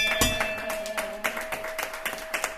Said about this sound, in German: Auch ich schlug die Glocke mit dem Klöppel, bekam Applaus und verabschiedete mich.